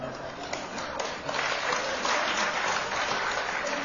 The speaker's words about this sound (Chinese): 别鼓掌了